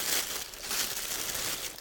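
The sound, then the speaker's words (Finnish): Paper wrapping crinkles and rustles steadily as it is pulled open from a toy figure of a First World War German soldier, a dense, continuous crackle with no voices over it. “paperikääröt täällä. Täältä paljastuu ensimmäisen maailmansodan saksalainen sotilas.”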